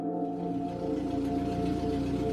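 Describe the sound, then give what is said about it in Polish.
A running engine drones steadily and evenly, a low hum with a constant pitch and no change in loudness throughout. No voices are heard. “Słyszę pracę silnika. Miarowy warkot.”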